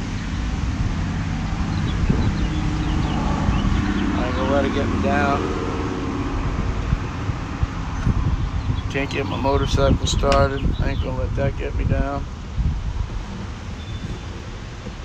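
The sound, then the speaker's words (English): Steady, blustery wind rumbles and buffets the microphone outdoors in April, a low roar that swells at moments while a man talks over it. “The wind's kicking up.”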